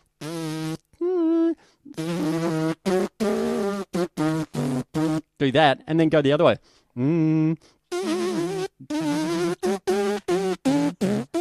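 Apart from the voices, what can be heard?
lip buzzing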